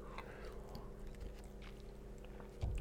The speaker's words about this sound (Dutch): Ik neem even een slokje water.